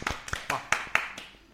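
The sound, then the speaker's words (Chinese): A single person claps about six times in a quick, steady rhythm, each clap sharp and crisp, the sound trailing off after the last one. “高手啊，厉害，鼓掌，真棒！”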